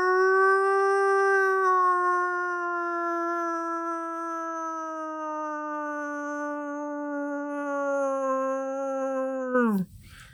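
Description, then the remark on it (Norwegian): A person in a studio imitates a wolf howl: one long, steady, sustained note lasting nearly ten seconds, sinking slowly in pitch before breaking off with a quick downward drop at the end. “Så sa han du høres ut som en syk varg”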